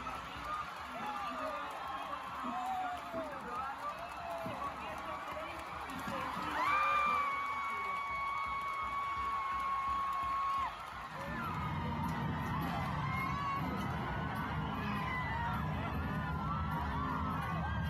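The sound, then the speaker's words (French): A large crowd of Argentines cheers and shouts in celebration of abortion becoming legal, a dense, continuous roar of many voices, with a long sustained whistle-like tone sounding for a few seconds midway. “c'est le doux son des Argentines qui peuvent désormais avorter sans risquer la prison ou la mort, c'est le doux son d'un droit arraché par la force au gouvernement, d'une liberté fondamentale obtenue par les cris et avec les tripes.”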